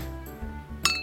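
A single bright clink of a fruit vendor's struck glass chime rings out near the end, its high tones lingering briefly over a low, steady background hum.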